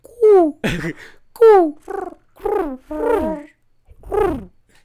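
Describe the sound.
A person imitates a pigeon's cooing with a string of about seven short, warbling vocal hoots that slide up and down in pitch, fairly loud with no other sounds.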